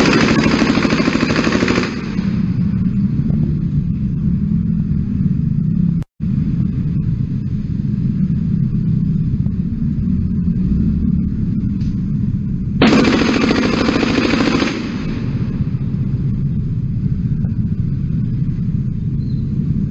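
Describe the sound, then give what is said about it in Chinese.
Two loud, harsh bursts of rapid machine-gun fire, each lasting about two seconds, from a morning shooting in Tucheng District, New Taipei City, where someone fired 42 rounds in broad daylight; a steady low rumble continues throughout, with a brief dropout between the bursts. “先给大家看一下新北市政府在土城区今早发生的枪案这件事很夸张，大家看一下，声音记得调到最大，在新北市有人拿机关枪光天化日之下扫射四十二发的场景是什么？”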